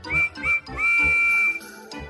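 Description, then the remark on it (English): The steam whistle of a small green tank engine with four small wheels gives two short, high-pitched toots followed by one long, steady blast, loud, with no voices. “Percy has a whistle that sounds like this.”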